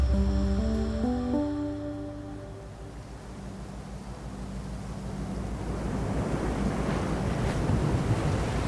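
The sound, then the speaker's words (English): The engine of the CSIRO research vessel Investigator drones with low, shifting tones as it motors across the Indian Ocean in July 2021, while rushing waves and wind noise build steadily louder around it. No one speaks. “What you're hearing right now is the CSIRO research vessel Investigator motoring across the Indian Ocean in July 2021.”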